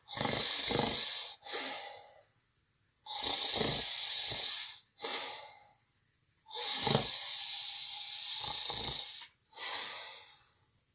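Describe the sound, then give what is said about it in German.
Steady snoring of travellers sleeping in bunk beds in a hostel dorm: three long rasping inhales, each followed by a shorter breathy exhale, in a slow, regular rhythm with quiet pauses between and no talking. “Das Schnarchen anderer Reisender bin ich jetzt nach vier Wochen überhaupt sehr gewöhnt.”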